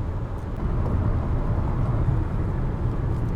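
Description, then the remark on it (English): Steady, deep rumble of a car interior while driving in San Bernardino, east of Los Angeles, with continuous road and engine noise filling the cabin for the full few seconds and no voices. “So, still in the car.”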